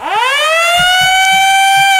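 A loud fire truck siren winds up quickly from a low pitch to a high, steady wail, with low rhythmic thumps rumbling underneath.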